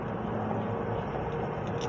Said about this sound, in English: I'm now in uh, Jasper, Georgia, following a 14 ton drill rig down the road my three quarter ton work truck with a trailer full of shit. Heading to a job site we hope we can get to and get done.